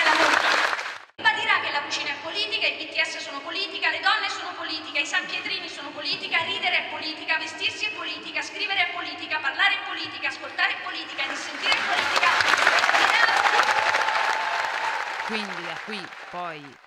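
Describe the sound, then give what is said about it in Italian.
A crowd at a funeral claps in a sustained burst of applause as the coffin is carried out, swelling in the final seconds, following a stretch of voices and other sound before it. The clapping is dense and fairly loud. “i lunghissimi applausi e poi gli applausi quando è uscita, è uscita la bara.”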